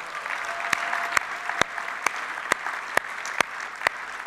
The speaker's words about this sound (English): Well, church, before I go any further, I'd like you to put your hands together. Today's a very special day, and I want to welcome